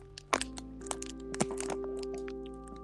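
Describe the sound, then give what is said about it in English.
Hot Cheetos being crunched: a loud crackly snap at the start, then a run of sharper and softer crunches in an irregular rhythm over a steady low hum, with no talking. “Nope, hot Cheetos.”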